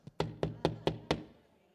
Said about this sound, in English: And they give that popo knock, you know. Oh, no, come on, y'all really need to come on here. You know, they give the police officer knock.